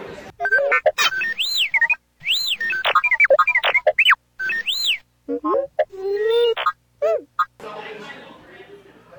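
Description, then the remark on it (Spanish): Astromech droid chatter from Artu (R2-D2): rapid electronic beeps, rising and falling whistles and warbling chirps in quick bursts with short pauses, ending in a stretch of hissy static. “Para los que no hablan este idioma de astro, Astromec, o androides de protocolo o, androides de compañía.”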